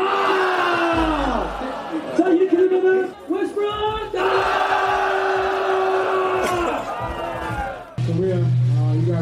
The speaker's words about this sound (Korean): 곧바로 이어서 SK 나이츠 유소년팀을 무대 위로 모시도록 하겠습니다. 뜨거운 박수 부탁드리겠습니다.